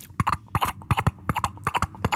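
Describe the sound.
A voice imitates horse hooves with a steady clip-clop of tongue clicks, paired knocks repeating in an even trotting rhythm, moderately loud with no talking.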